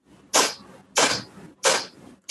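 Four sharp, forceful nasal exhalations at a steady rhythm during a breathing meditation exercise, each a short loud hissing burst of breath pushed out with the abdominal muscles, with quiet pauses between them.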